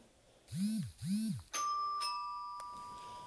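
A doorbell rings: two swooping electronic tones, then a bright chime strike whose clear, sustained notes ring out and slowly fade, with a second softer strike and a click. Fairly loud, no talking.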